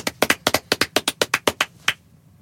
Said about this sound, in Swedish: Verkligen. Det är magiskt. Applåd till majblomman.